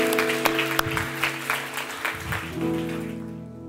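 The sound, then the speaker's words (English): An audience applauds in a steady, dense patter of many hands, with a sustained organ-like tone holding underneath before the clapping thins out toward the end. “If, if you don't clap more, I'm going to keep going.”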